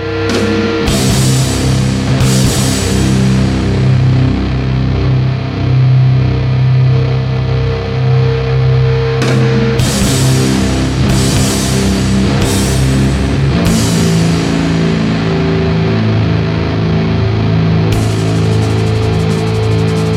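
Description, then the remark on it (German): Heavily distorted guitar chords played at maximum volume through a bass amp, struck about six times, each ringing out in a thick, buzzing, low-heavy drone that sustains loudly between hits. No one speaks. “dann nochmal mit Bassverstärker und den wahrscheinlich auch verzerrt. Und jetzt haue ich einfach mal so einen Akkord rein und der steht jetzt erstmal”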